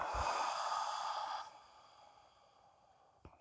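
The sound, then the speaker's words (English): A long exhale of breath during a guided breathing exercise, strong and airy for about a second and a half before trailing off into quiet, with a small click near the end. “Gently closing our eyes, taking in a deep breath, breathing in, breathing out.”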